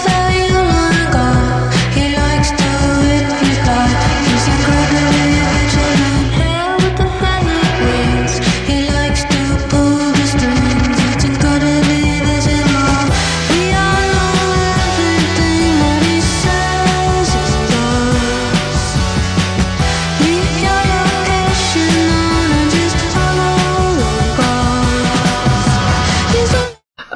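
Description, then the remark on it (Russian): An indie pop song plays loud and continuous, with steady beats and layered melodic instruments, running for nearly half a minute before cutting off abruptly at the end. “И вот э, на этом альбоме есть песня, которая называется”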